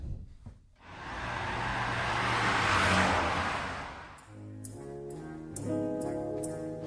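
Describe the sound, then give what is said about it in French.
A BMW car engine revs and roars past, swelling loud and then fading over a few seconds, followed by a short run of bright, rhythmic musical notes. No one speaks. “Dites donc, vous avez une sacrée belle bagnole. Ah, la BM, c'est bien.”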